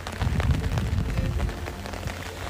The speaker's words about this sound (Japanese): 今日はですね朝から、はい、雨が降っていますがそんな中今バス停に向かって歩いているところになります